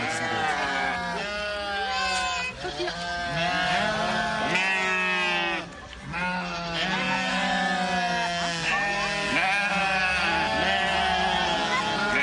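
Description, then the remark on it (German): A flock of sheep at a zoo in Herne, Germany, played from a video recording, bleating almost nonstop, many wavering, quavering calls overlapping one another, fairly loud, with only a brief lull partway through. “Wenn Jesus sagt, ich bin der Hirte und ihr seid die Schafe”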